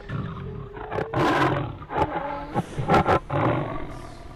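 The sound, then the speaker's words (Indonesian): A loud, tiger-like roar from a person, made of several rasping, growling surges that swell and break off over a few seconds, with no talking. “Tiba-tiba seseorang di belakangku meraung bagai macan.”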